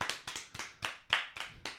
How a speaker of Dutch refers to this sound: mogen we eerst even aandacht voor onze gast? We hebben namelijk een gast deze aflevering. en dat is niemand minder dan Eddie Zoe. Applaus.